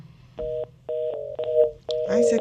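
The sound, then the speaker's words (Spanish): A string of electronic telephone tones, steady paired beeps repeating in short bursts, signalling that a phone call has dropped, followed by voices talking over the line. “se cayó. la llamada, se cayó la llamada.”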